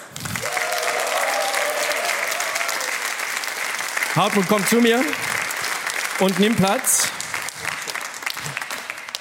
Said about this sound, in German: Dein Applaus war lauter und zwar verdientermaßen.